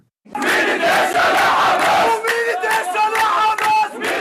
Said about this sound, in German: Freitagabend in Bethlehem im besetzten Westjordanland. Jubelgesänge für die Hamas.